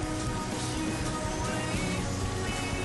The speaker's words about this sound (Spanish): Ah, se empieza empezó a llover. Bueno, empieza la transmisión con, con lluvia, Sí, con ruido de lluvia de fondo. No sé si se escuchará, pero. acá se ah, escucha todo.